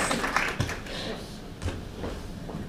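A group gives a soft, fairly short round of applause, a steady patter of many hands clapping with a few sharper claps standing out, and some murmuring voices mixed in.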